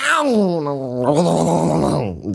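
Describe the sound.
A person vocally mimics a big cat grumbling as it runs away after hissing at and swiping a small cat with its paw, a drawn-out, wavering whine that drops in pitch and then rumbles on with a throaty, complaining tone before cutting off.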